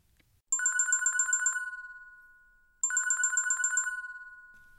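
A telephone ringtone trills twice, each burst a rapid electronic warble lasting about a second before ringing out and fading, with no voices; it is a call from a convenience store owner.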